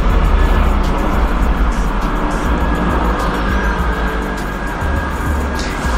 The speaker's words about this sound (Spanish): Estamos haciendo una pausa para que pase el helicóptero. Ahí no hay nada que hacer.